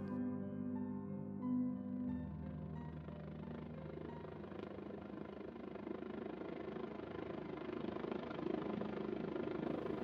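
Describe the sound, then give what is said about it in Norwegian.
A helicopter flies slowly around overhead near Bodø, searching for the best place to build a data center, its rotor hum and engine whine thick at first, then spreading into a broad, continuous rumble that holds at a moderate level throughout. “Et helikopter flyr sakte rundt i lufta.”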